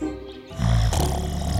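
A deep, booming snore of two sleeping giants, one green-skinned and one red-skinned, rumbles loudly, swelling in after a brief quieter moment and growling on steadily like rolling thunder, with no voices present.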